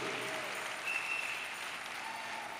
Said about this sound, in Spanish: No estoy oyendo el aplauso.